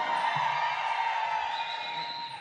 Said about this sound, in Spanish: Familia, más fuerte el grito para que lo escuche todo México.